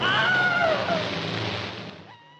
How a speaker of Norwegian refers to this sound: Vi har kanskje nådd toppen og gått over toppen og vel så det for The Wilhelm Scream. Eh, slik at eh, det er vel ikke så veldig mange som eh, vil ta det i bruk fremover, med mindre det får nok en revival om 20-30 års tid.